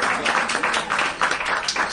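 A crowd applauds a costumed participant dressed as a pilot, many hands clapping in a dense, continuous patter that swells and dips slightly over two seconds, fairly loud and without any voices over it.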